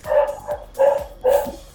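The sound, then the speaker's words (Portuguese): A dog barks four times in quick succession, the barks loud, with short gaps between them and no talking. “Esse cachorro aí, hein?”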